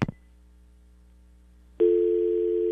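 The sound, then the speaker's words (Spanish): A brief click and quiet line hum give way to a loud, steady phone dial tone after two incoming callers drop off at the same time; the tone starts abruptly and drones on continuously, with no talking. “Mm, se fue, hubo una señora que entró y un señor que entró a la misma vez y se fueron los dos.”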